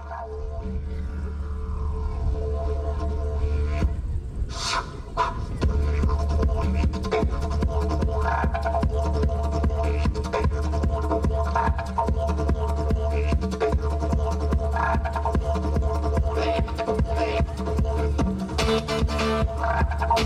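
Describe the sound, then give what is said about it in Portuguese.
A one-man band street musician plays on the street: a steady, dense mix of instruments, with a constant low throbbing bass under layered melodic tones and sharp bright crashes around five seconds in and again near the end. No voices. “Era um músico muito diferente que fazia vários sons sozinho era conhecido como a Banda de um Homem Só.”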